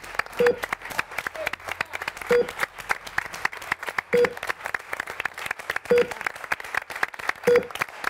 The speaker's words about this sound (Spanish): Ahí está, ahí está la gente aplaudiendo desde los balcones.